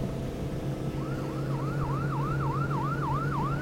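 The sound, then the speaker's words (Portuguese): A police boat siren, from a police boat coming toward the listeners, starts after about a second, wailing in quick repeated rise-and-fall sweeps over a steady low engine drone. It sounds near and holds a constant, moderate loudness with no voices. “É um barco da polícia, Carlos.”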